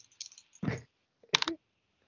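Dice clatter in two short bursts of rattling clicks, preceded by a few faint ticks, with no talking, as a player rolls first in a semifinal of a dice game.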